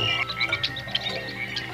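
A dense night chorus of crickets and small frogs, with high chirps and trills layered over low croaking pulses, steady and continuous, moderately loud with no voices present.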